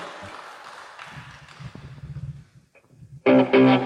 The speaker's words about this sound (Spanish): Fuerte los aplausos, una foto.